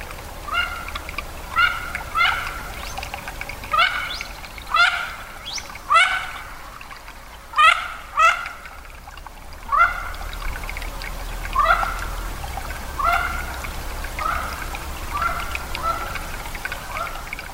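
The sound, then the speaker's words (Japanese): Mandarin ducks calling in a run of short, rising whistled notes, repeated in quick clusters every second or two, fairly loud over a low rumbling background with no talking. “仲の良い夫婦のことをおしどり夫婦と言いますがおしどりの夫婦は本当に仲が良いのでしょうか”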